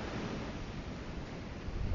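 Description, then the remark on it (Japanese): Steady wash of ocean surf rolling in on the sea at Niigata, Japan, a broad rushing roar with low rumble and some wind buffeting, swelling slightly louder toward the end. No voices. “新潟の海の上で話をしています周りの波の音聞こえますか”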